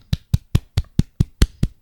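Nine quick hand claps in a steady, even rhythm, each one sharp and bright, fairly loud, with no talking.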